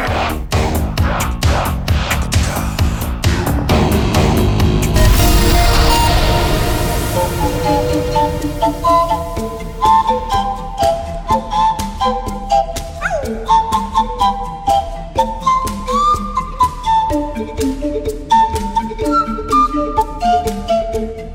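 A catchy pop tune played on a few empty bottles: hollow, pitched tones form a melody over steady percussive taps, loud, with a brief breathy, noisy swell partway through and no voices.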